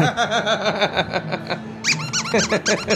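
A worn squeaky hot dog toy that has almost lost its squeak squeaks hoarsely over and over in quick, uneven bursts, fairly loud, with a brief lull partway through before another rapid run of squeaks.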